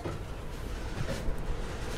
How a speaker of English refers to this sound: with the train slowly drifting across a railway junction. And the driver hand hard on the horn. And just passed.